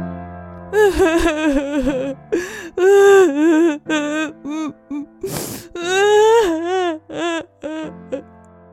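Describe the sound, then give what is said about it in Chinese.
A voice imitates a crocodile crying loudly: a string of high, wavering wails and sobs with sharp gasping breaths between them, rising and falling in pitch for several seconds. “一开始他只默默的滴了一滴眼泪，后来他开始放声大哭。”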